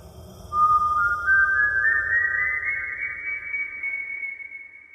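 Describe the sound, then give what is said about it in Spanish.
A man whistles a long, eerie tone that slowly glides upward and holds high, sustained and fairly loud over a low rumbling background, with no one speaking. “Silbido de ultratumba precaución sombra sigilosa te persigue hasta el fin.”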